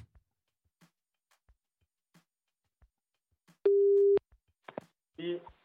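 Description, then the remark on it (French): Faint, evenly spaced clicks lead into a single steady telephone ringing tone lasting about half a second as a man is called back, followed by short clatters and a brief burst of a voice picking up. “Bon, on le rappelle. Rappelez-moi ce guignol.”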